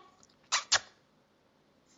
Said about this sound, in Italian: A proposito, clausola, nota a margine, Smerdocchio sarebbe il mio nuovo gatto che si chiama Omega. Vediamo se ci vuole salutare.